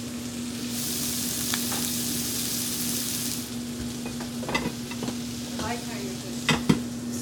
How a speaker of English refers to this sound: All right, so now we'll add our shallots, thyme, marjoram, and we'll let that other side cook, kind of steaming all of the herbs and everything on top, and then we'll uh, whip it around to roll it in. About another minute and a half on this side.